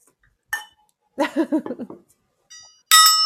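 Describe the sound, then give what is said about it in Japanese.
Bright glassy clinks of glasses in a toast ring out, a short one first and a louder, lingering chime at the end, with a brief burst of voice in between. “乾杯でその音出るかなちょっと、ちょっとまた音出してみます。”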